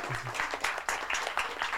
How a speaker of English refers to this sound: That yeah, we can have an applause for that.